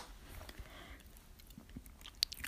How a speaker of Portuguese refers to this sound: Então me ouvir engolir